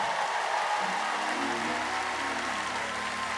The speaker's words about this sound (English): If you believe that, give him a clap offering. Let him know that you're talking to him.